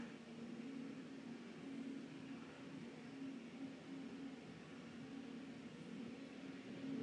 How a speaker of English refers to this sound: The sound of your own throat, a truck.